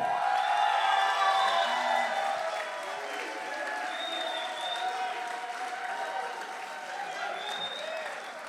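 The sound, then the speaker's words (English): A crowd applauds steadily with scattered cheers and whoops, the clapping dense and loud at first, then easing slightly but continuing throughout. “I think there's a little bit of a hometown advantage here, but uh, rent a crowd, and here they are.”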